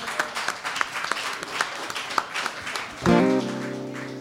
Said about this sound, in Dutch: Ah, applaus.